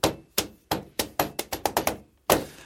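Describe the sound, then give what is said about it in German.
Foley footsteps from a German dub of people stepping down from the back of a vehicle and walking to a hotel: about ten dull, metallic thudding steps, evenly spaced at first and then quickening, ending in one heavier, louder thump. No voices are heard. “ein bisschen dumpfere, metallische ähm, äh, Fußabdrücke aus dem Wagen, ne, von der, von der, hinten von der Hood, wo sie runtersteigen und dann gehen sie ganz normal zu dem Hotel.”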